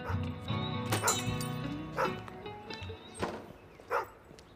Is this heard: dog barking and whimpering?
yes